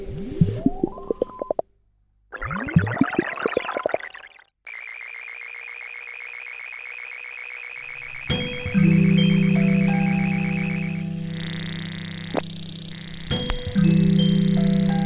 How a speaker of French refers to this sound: Maintenant, nous imitons le réveil. Pendant que je remonte le réveil, vous respirez à fond.